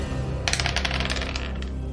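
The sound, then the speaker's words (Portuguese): Two dice clatter across a hard surface in a quick burst of bright, irregular clicks that tumble and fade out over about a second, with no talking. “Rola dois dados.”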